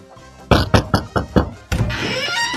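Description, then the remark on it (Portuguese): Five loud, solid knocks on a door land in a quick, even rhythm, then a longer rough, hissing noise follows right after the last knock. No one speaks. “E também lembrando da nossa promoção, ela já tá batendo aí na bo- a porta.”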